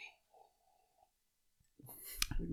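A single bright, ringing clink of glasses touching in a toast, surrounded by brief rustling and handling noise; a faint hum comes first, and no one speaks.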